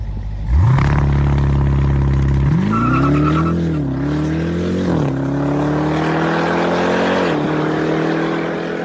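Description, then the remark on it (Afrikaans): A sports car engine bursts into a loud roar and keeps revving, its pitch climbing in steps with brief dips at each gear change, sustained and powerful with no voices. “Kyk as jy na hierdie klanke luister, dan is ek seker jy sal weet dat hierdie is die vinnigste en kragtigste produksie sportnuts wat al ter wêreld gebou is.”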